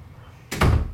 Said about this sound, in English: Don't come back in here. Shut my door.